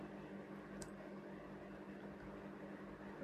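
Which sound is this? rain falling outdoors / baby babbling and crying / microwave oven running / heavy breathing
microwave oven running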